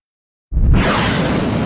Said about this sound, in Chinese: 迪迦坐上铁王座之后，只觉得像是坐上了火箭，嗖的一下就被传送到了另一个地方。